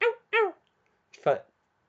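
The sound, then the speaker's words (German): A voice imitates a dog howling in three short bursts during a sung performance: two quick whining cries, a pause, then a louder rising-and-falling yowl. No words are spoken. “Und auch immer zwischendrin dieses Hundegejaul, dieses”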